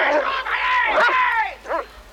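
A dog barks, a long, strained, whining yelp followed by one short sharp bark after a brief pause, with no talking.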